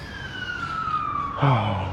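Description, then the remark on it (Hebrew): An emergency vehicle siren wails steadily, its long tone slowly sliding lower as the vehicle passes outside, before a louder low rumble joins near the end. “אני מזמן, רגע, סירנה, זה זמן לנשום.”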